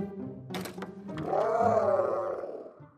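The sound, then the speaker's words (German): A Pteranodon's call: one long, loud, wavering screech-roar that rises and falls, preceded by a few short thumps and rustles. No one speaks. “Hallo, da bist du ja, Pteranodon.”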